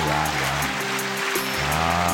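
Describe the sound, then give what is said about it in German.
A steady, dense wash of applause keeps an even loudness for about two seconds, with a low sustained musical tone running underneath and no voices. “Dieser Applaus ist für Sie, meine Damen und Herren.”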